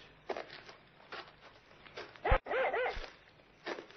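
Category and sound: animal, dog barking excitedly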